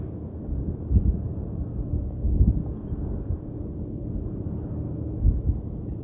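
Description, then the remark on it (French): Ocean waves rumble low and steady with no voices, swelling into deeper surges every second or two over a constant murmur. “Et grâce à vos oreilles et vos tympans qui vibrent au son de ma voix, et au son des vagues, et au ronron des bateaux qui passent”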